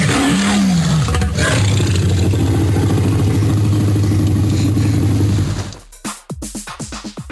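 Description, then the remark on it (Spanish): A massive Tyrannosaurus rex roar from a 1993 film, made by combining tiger, alligator and baby elephant sounds; loud, a long growling bellow of about five seconds, then a few fading booming thuds. No one speaks. “no sabías que el rugido del tiranosaurio Rex se produjo con una combinación de sonidos de tigre, caimán y un bebé elefante.”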